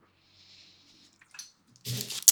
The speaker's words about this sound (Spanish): Eh, como les decía, no voy a estar cortando este pedo, entonces me van a estar viendo tomar agua. Gracias a mi madre que me patrocinó este cómo llamarlo, cilindro. Iba a decir pepsilindro de los noventas.